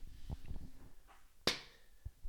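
One sharp, loud hand clap for a microphone clap test rings out alone with a short fading tail, preceded and followed by soft low thumps like a microphone being handled.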